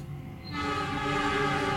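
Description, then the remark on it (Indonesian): A train horn blares loud, its sustained harmonic tones rising in at the start and holding steady over the rumble of a passing train, with no talking. “eh, kereta lagi coy ya ini anggap iklan lah”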